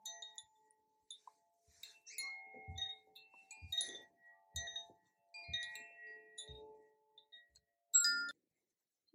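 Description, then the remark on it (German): Soft metallic gong tones ring out, several light strikes with lingering shimmering overtones and gaps of silence between them; no one speaks. “Beim ersten Gong reck und strecke ich mich. beim zweiten öffne ich die Augenlider.”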